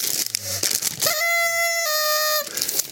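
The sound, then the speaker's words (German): A party blower horn, found in an old carnival costume, gives one steady, buzzy, reedy honk for over a second, dipping slightly in pitch partway through, with papery crinkling before and after. “Der funktioniert noch. Was? Normalerweise gehen die ja sofort kaputt, diese Tröten.”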